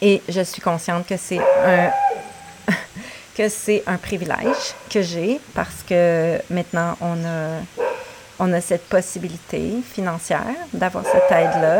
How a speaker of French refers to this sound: Désolée pour le chien.